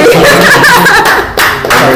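A burst of steady applause from a crowd, dense clapping that stays loud for about two seconds, with some chuckling and laughter mixed in and a brief dip near the end.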